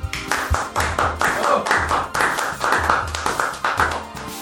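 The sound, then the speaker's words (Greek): A steady burst of warm applause from a few people, with dense, overlapping hand claps continuing at an even, fairly loud level for several seconds without talking. “Ένα θερμό χειροκρότημα”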